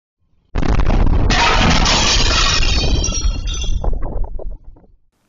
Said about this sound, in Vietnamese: Tuy nhiên, một camera an ninh nhà dân cách điểm nổ 500 mét ghi lại được tiếng nổ và âm thanh rất lớn, tạo xung lực để toan và làm vỡ nát một cánh cửa kính nhà này.